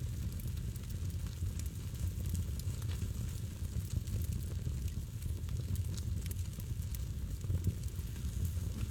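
A campfire crackles steadily for the whole stretch, with a dense low rumble of burning beneath scattered sharp pops and snaps. Nobody speaks.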